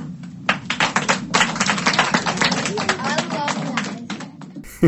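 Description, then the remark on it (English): A crowd applauds steadily after a story ends, dense overlapping claps filling about five seconds at a moderate, even level, with a little kid briefly calling out "I love that" among the clapping at the end. “I think my favorite part of that is that little kid at the end uh, in the applause, going, I love that.”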